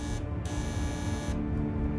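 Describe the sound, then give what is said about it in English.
An apartment door buzzer is rung by a visitor in one long, continuous harsh electric drone, steady, with no voices around it; no one answers. “After ringing the buzzer and not receiving an answer, she uses the key that Fahim had given her in case of emergency.”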